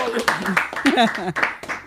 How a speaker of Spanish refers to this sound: Aplauso para Dios que...